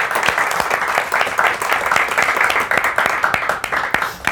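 An audience applauds steadily, a dense patter of many hands clapping at once, loud and unbroken for the whole stretch with no voices over it.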